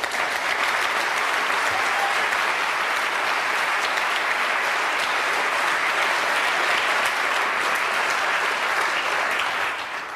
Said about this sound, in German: Applaus